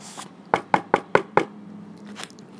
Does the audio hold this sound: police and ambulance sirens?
no